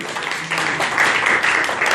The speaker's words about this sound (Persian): تشویقشان بفرمایید